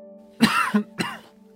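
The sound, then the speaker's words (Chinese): Two harsh, violent coughs from a badly wounded old Taoist priest, the first longer and rougher, the second a shorter bark after a brief pause, over a steady low hum with no talking. “这句话刚说完，他就忍不住剧烈咳嗽了两声，鲜血瞬间就从他的嘴角溢了出来。”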